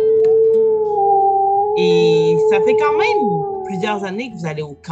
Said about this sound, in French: dans la forêt se déploie, retentit très fort des hurlements de loups.